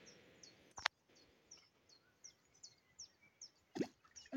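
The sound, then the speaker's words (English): Two small, sharp splashes plop into the water of the River Lugg a few seconds apart, made by a person pretending to get in, set against a steady outdoor hush with scattered bird chirps around them. No one speaks. “If, if anybody heard a little splash, like a tiny little minnow fish, that was me.”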